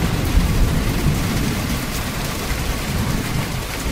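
Heavy rain pours down steadily in a thunderstorm, a dense hiss over a deep, continuous low rumble. The storm stays loud throughout, with no voices.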